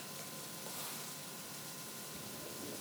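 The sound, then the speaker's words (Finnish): A coffee maker that has not been brewing coffee gives off a steady, faint crackling and hissing, a continuous fizzy sizzle with no pauses and no voices. “Se on ehkä edelleen toi kahvinkeitin.”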